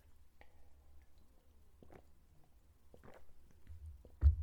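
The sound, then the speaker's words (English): Someone sips water, with soft wet mouth clicks and small swallowing sounds spread over a few seconds, ending in a slightly louder gulp or set-down thud. Quiet otherwise, with no talking. “I'm going to take a sip of water.”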